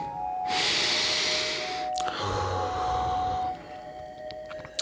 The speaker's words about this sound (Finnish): Ota alkuun mm, oikein syvä hengitys sisään ja ulos, mikäli sinulla on käytettävissäsi keuhkot.